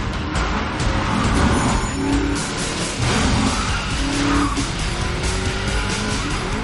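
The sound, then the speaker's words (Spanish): A car with its driver's door missing skids on a wet floor inside a warehouse, tires squealing over a loud, continuous engine roar and a broad wash of road noise, sustained for several seconds, with no talking. “Derrapa sobre el suelo mojado”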